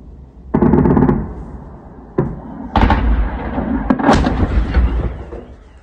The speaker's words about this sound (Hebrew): הטריגר המיידי שרוסיה דיברה עליו היה אה, סדרה של פיצוצים בגשר קרץ', שזה הגשר שמחבר את רוסיה לחצי האי קרים.